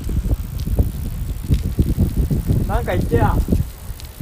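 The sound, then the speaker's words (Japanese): Strong wind buffets the microphone outdoors in very cold weather with loud, irregular low rumbling gusts that continue throughout, while a person speaks briefly over the blustery noise. “やばいっすやばいこれ風風の音やばい”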